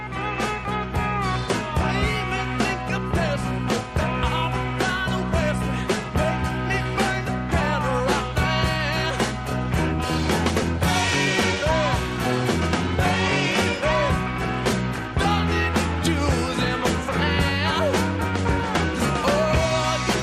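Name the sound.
rock song playing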